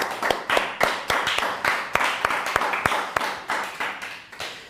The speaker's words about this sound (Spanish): Así que dan un fuerte aplauso nuevamente al Eterno.